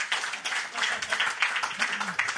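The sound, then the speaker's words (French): A crowd breaks into steady applause, a dense, bright crackle of many hands clapping at an even loudness throughout, with a faint murmur of voices underneath. “Il y en a-tu qui, euh, juste par curiosité, qui écoutent le podcast pendant l'année, la saison régulière par applaudissement?”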